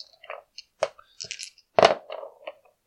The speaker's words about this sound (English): Roll the dice.